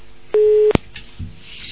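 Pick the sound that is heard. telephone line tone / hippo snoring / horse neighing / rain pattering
telephone line tone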